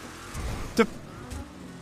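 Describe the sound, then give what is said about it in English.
In a video game, a car engine hums low and steady while the vehicle jolts over spinning speed bumps, giving one sharp, loud thump and then a softer second knock about half a second later. “Spinning speed bumps. Will this be the first car?”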